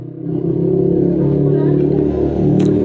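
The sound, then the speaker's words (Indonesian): A motorcycle engine drones loudly, a steady low rumble that holds for the whole few seconds as it rides past. “Terima kasih kepada motor fiction yang lewat.”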